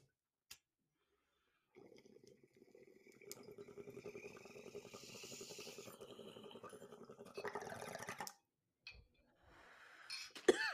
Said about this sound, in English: Let's take a bong rip. And if you're listening, if you're listening, you can take a bong rip with us. Pack one. Pack one right now. All right. Cheers. Cheers.